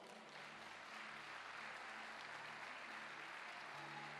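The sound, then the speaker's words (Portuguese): A church audience bursts into steady applause for the Lord during worship, a dense wash of many hands clapping at an even, sustained level for several seconds, with no voices standing out. “Quantos podem aplaudir o Senhor?”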